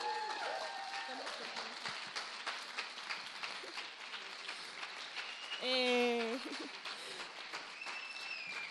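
An audience applauds steadily as a group of women is called onto the stage, a dense, continuous patter of many hands clapping at an even loudness, with a few high tonal whoops or whistles rising above it partway through.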